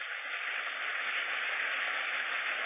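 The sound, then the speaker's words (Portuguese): An audience applauding loudly for the Lord: dense, continuous clapping that blends into an even, hissing roar, holding steady for a few seconds with no voices over it. “Se é para ele, aplauda forte.”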